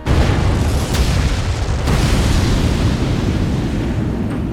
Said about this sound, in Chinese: 但是为时已晚，第一枚导弹已经落入了战场。紧接着，刺耳的爆炸声传来。